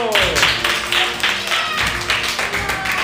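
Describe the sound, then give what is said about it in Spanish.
A group applauds with brisk, fairly rhythmic clapping that continues steadily throughout, with a few faint voices mixed in beneath the claps. “El Día de la Infanidad, aplausos.”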